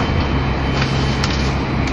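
Steady, loud rumble of a 683 series Shirasagi No. 14 express train running from Toyama to Nagoya, heard from inside the car, with a broad continuous roar, a low hum and faint higher rattles drifting through; no one speaks.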